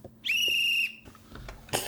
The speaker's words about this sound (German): Es sieht ganz so aus, als wenn alle Spieler auf dem Feld wären und ich sehe auch schon, der Schiedsrichter pfeift. Jetzt beginnen 90 Minuten pure Spielfreude.